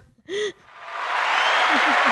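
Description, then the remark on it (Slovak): A brief vocal exclamation, then audience applause swells up and holds steady and loud, with a few short voiced calls rising over the clapping near the end. “Áno, poprosím potlesk.”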